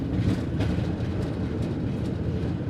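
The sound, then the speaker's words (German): A carriage rolls along with a steady, low rumble and faint rhythmic clacks of the wheels, holding an even loudness throughout with no voices. “Der Wagen hält, er ist fort.”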